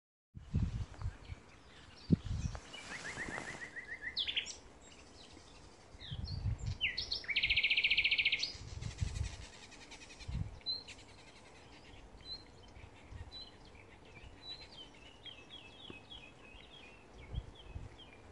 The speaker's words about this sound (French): les sons de la forêt les accueillirent chaleureusement, avec le chant des oiseaux et le murmure des feuilles dans le vent.